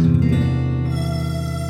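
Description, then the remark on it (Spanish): A doorbell rings once, a rich, sustained metallic tone that starts strong and slowly fades over a couple of seconds, with no voices over it. “Sonó el timbre.”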